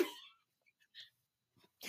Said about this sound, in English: she means her nose. She had to blow her nose.